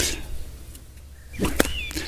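A whip swishes through the air and ends in one sharp crack, followed by a brief fainter snap against a quiet background.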